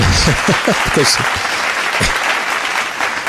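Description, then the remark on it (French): An audience applauds steadily after about seven seconds of improvised music on a drum pattern, dense clapping filling the whole stretch, while a voice talks briefly over it near the start. “je ne sais pas pourquoi vous applaudissez après 7 secondes de musique.”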